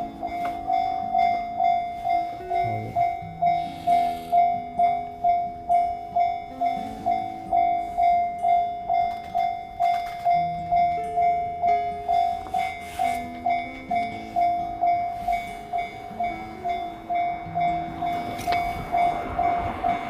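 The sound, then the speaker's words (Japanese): A railway crossing bell clangs in a steady, rapid rhythm while a train crosses and rumbles past, loud and continuous for the whole stretch, with no voices. “あ、なんかちょっと、電車、線路渡るみたいなんで、ちょっとお待ちください。”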